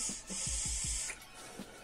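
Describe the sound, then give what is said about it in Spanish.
A steady, breathy hiss of vapor being exhaled from a vape, lasting about a second, with a few soft low thumps beneath it and no talking. “Es vapor, güey, mira.”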